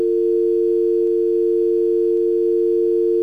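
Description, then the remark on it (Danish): A doorbell buzzes in one long, unbroken electronic tone for about three seconds, steady and fairly loud, with no voices. “Hov, oh, nu ringer det på døren.”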